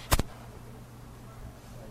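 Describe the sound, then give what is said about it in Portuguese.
A sharp, loud thump and rustle as the speaker touches their own microphone cable and knocks it out of place, a brief jolt followed by steady low hum and quiet background noise. “Não, foi porque eu toquei no meu cabo aqui,”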